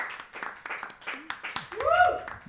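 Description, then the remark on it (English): A single person, a lighting designer, claps in support of an interview being recorded with an audience in Brooklyn, a steady string of sharp, moderately loud hand claps for about two seconds, while voices murmur underneath and a brief rising vocal sound comes near the end. “Um, so we hear him clap in the background uh, to support our conversation.”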